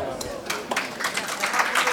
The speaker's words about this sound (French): Non, merci de m'applaudir.